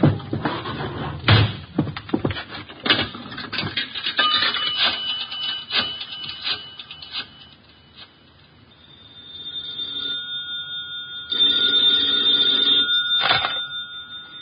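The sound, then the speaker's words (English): A telephone rings with a steady electric bell tone near the end, preceded by clattering knocks and thumps like a door or objects being handled. “Here's a phone.”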